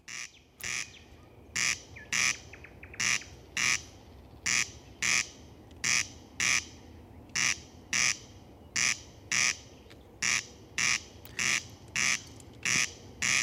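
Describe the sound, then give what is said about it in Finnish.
A corncrake calls at night, a dry, rasping double 'crex-crex' repeated steadily and loudly over a faint, constant background hum, with no voices. “oli joko valittavaa ruisrääkän yöllinen konsertti tai tuskainen kuumuus”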